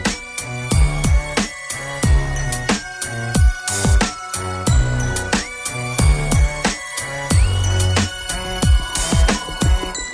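A French rap track plays loudly and continuously, with punchy, evenly spaced drum hits, deep bass, and a bright synth melody looping over the beat.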